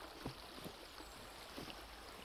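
A quiet, steady wash of flowing river water, soft and continuous, with a few faint splashes and ripples rising briefly above the even rush. No voices are heard.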